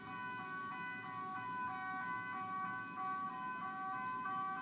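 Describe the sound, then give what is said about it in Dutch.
An ambulance passing by sounds its siren throughout, a bright, steady tonal wail with a regular pulsing rise and fall, layered over a low, continuous traffic rumble. No one speaks. “Er komt een ambulance voorbij, wacht even.”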